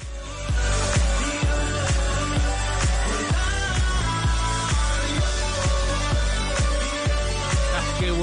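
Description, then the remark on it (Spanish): An electronic pop song plays loudly and steadily, driven by a punchy, regular kick drum beneath bright synth layers, with no one talking over it. “démosle 10 segunditos más a esta música que suena así.”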